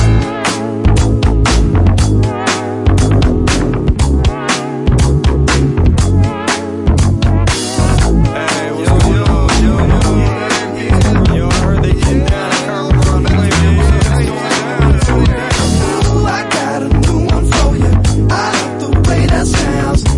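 A loud, upbeat funky pop track plays continuously on the radio show Before Sunrise, driven by a steady danceable beat and a thick, bouncing bassline, with bright layered instruments and no voices.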